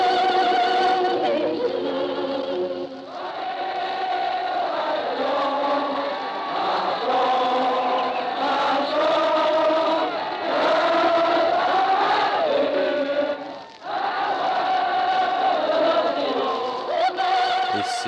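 Old, muffled, noisy archival radio recording of the Armistice celebration, 11 November 1918, Place de l'Opéra, Paris: a large crowd cheers and shouts continuously for about eighteen seconds, a loud, dense mass of voices with pitched, singing-like swells, while Marthe Chenal sings the Marseillaise.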